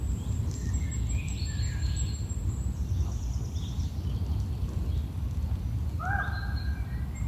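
Birds chirp and whistle intermittently in a forest, over a steady low outdoor rumble, with a brighter rising call standing out near the end.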